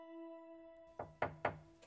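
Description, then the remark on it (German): Three firm knocks on a room door in quick, even succession, clear, following a sustained soft musical tone that fades underneath. “da klopft an die Tür.”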